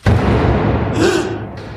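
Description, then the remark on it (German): A heavy door slams shut once with a loud, abrupt bang in a huge entrance hall, followed by a long booming echo that lingers. “Die Tür ist gerade zugeschlagen.”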